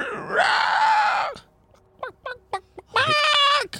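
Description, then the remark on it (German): A creature screams in torment: two long, loud, anguished wails separated by a few short, sharp yelps, with no talking. “Nee, zwei, es, schreit, zwei es schreit weiter gequält.”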